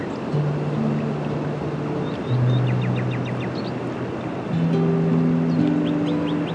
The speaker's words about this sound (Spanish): Y nota cómo el sonido rítmico de las olas te lleva a un estado de descanso aún más profundo.